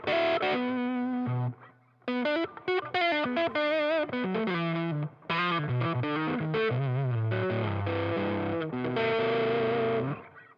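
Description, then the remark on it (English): An electric guitar with mini humbucker pickups and some wiring issues plays a distorted, effects-laden riff for about ten seconds, loud, mixing quick note runs with a few held, ringing notes and no talking. “They're like little mini humbuckers or something, but mm. just sounds.”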